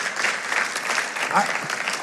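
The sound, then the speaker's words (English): A church audience claps steadily to show love and appreciation for their pastors, a dense wash of many hands striking at once, fairly loud and continuous for the whole stretch with no clear pauses. “Could we clap our hands and show our love and appreciation?”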